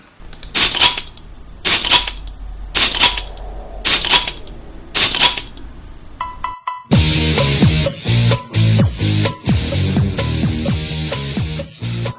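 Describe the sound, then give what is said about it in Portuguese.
Five sharp, hissing pops of beer bottles being opened, evenly spaced about a second apart, followed by a brief chime and then upbeat music. “Atenção ouvintes do Papo de Cerveja para o top de 5 cervejas sendo abertas.”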